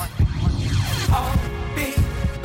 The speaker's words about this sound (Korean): Can you feel my heartbeat?